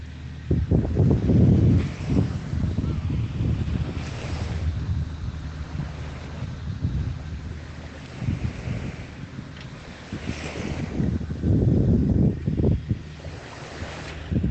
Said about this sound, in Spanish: Escucha el ruido de las olas.